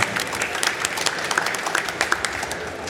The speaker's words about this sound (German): Das wäre vielleicht mal ein Applaus wert.